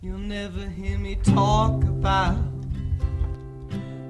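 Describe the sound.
A song plays with a male voice singing a slow, steady melody over sustained instrumental chords and a low bass line, loud and close throughout.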